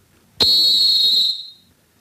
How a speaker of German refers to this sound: Man hat eine Pfeife entwickelt ohne Kugel, die kanadische Fox 40, die also derart schrill und laut ist, dass es also manchmal den Spielern sogar unangenehm ist.